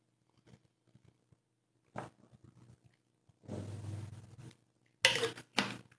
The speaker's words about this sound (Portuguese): Vamos lá, só dá um gole aqui. Se você tem água aí por perto, aproveita para dar um golinho também.